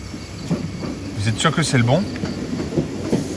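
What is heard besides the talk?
train arriving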